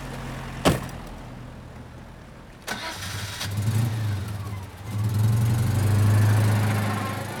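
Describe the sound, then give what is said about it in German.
Two sharp clunks, then a Citroën 2CV's small engine starts up and drives off along a dead-straight road through the forest toward Drusenheim, its buzzy, throbbing drone rising and surging steadily, with no talking. “steuert seine Ente auf der kerzengeraden Straße durch den Wald in Richtung Trusenheim.”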